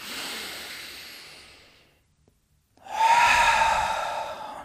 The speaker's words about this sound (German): Und jetzt atmen wir einfach einmal tief ein und aus. Gerne auch laut, uns hört und sieht ja keiner. Das machen wir jetzt noch zweimal.